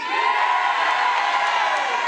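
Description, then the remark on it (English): An audience cheers loudly and continuously in response to a call for anyone from Dublin 1, a dense roar of many voices with scattered whoops and shouts, sustained at full volume for a couple of seconds. “Can I get a big cheer for anyone from Dublin 1?”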